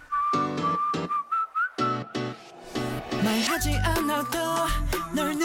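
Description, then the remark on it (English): A bright whistled melody runs over a pop track with punchy beats and synths, the tune sustained and clear, backed later by deep bass hits and busier instrumentation. “Oh, I do love whistles.”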